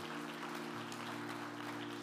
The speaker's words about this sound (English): Can we give the Lord a hand clap of praise for who he is today?